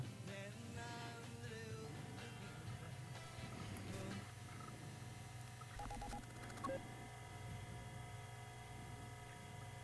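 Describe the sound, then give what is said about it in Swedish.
A phone call being placed: short keypad dialing beeps sound over a steady electronic hum and faint crackling line noise, with no voices. “Ja, jag, jag ringer ju direkt. Jag ringer.”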